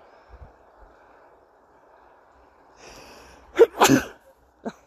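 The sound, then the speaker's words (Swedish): A single loud sneeze bursts out after a quiet stretch with a soft breathy intake, followed by a short sharp sniff or catch of breath at the end. “Jag nyser och gäspar och borta allt här.”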